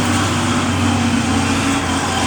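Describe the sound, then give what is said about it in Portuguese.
A heavy truck rumbles past on a city street at around 6:30 in the morning, its low engine drone and road noise loud and steady throughout, with no one speaking. “Hoje, agora é o caminhão que está passando aqui.”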